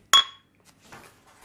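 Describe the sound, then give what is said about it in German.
A single bright clink of beer bottles tapping together in a toast, ringing briefly before fading into faint rustling and soft handling noises. “dafür habe ich jetzt gerade ein Bier aufgemacht”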